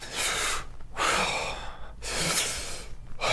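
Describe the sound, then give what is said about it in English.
Heavy breaths drawn deeply in and pushed out several times in a steady rhythm, each carrying a faint whistling wheeze from lung tissue damaged by an earlier pneumonia, with no talking. “You see how you heard a wheeze in me?”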